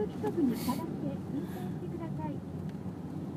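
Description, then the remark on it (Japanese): A steady low rumble of a crowded city route bus on the move, with indistinct voices murmuring over the continuous road and engine noise. “うわめっちゃバス混んでる路線バス”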